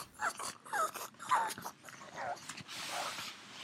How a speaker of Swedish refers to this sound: Jag hör, det är min mops som håller på och grymtar i bakgrunden om, det, om han hörs lite. Han har lite gris, grisljud.